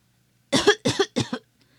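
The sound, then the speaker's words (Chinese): A quick run of three harsh, raspy coughs in close succession, fairly loud and alone with no talking, ending in a brief quiet tail. “如果咳嗽时，我们应该怎么办呢？”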